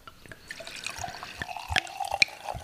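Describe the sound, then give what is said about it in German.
A wine bottle from the Weingut Kahner winery being opened and poured: a few sharp clicks, then a steady, gurgling stream of liquid with bright glugs and drips, moderately loud, with no talking. “Hm, den machen wir jetzt auf, bevor es hier ins Eingemachte geht.”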